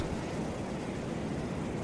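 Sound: ocean waves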